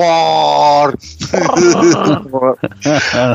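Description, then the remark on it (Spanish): A person imitates Chewbacca's long, throaty growl, a loud, drawn-out warbling roar, followed by several shorter growled bursts. “Chubaca está medio pasado. Me salió Chubaca, Chubaca, ah, el está medio cagado.”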